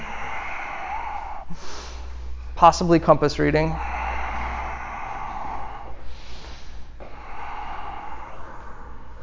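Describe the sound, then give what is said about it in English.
Heavy, forceful yoga breaths puff in and out during a yoga practice, with a loud, rough snort-like exhale partway through, while someone talks quietly in the background. “There definitely was some yoga breath, though, right? There was a lot of like breathing,”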